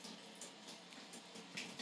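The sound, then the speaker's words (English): Steady rain patters onto a woodland puddle, a soft continuous hiss of water dotted with small splashy drips, fairly quiet and even throughout, with no voices. “You can hear the rain.”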